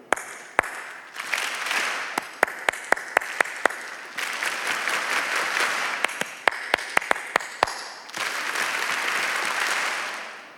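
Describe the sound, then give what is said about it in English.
A large audience claps back in sharp unison to a lead, single and patterned claps answered precisely, alternating with stretches of dense, sustained applause that swells and fades. “So I'll clap my hands and you respond appropriately.”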